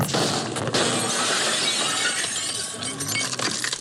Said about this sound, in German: Drei Männer schlagen nachts die Glastür eines Radiogeschäfts ein.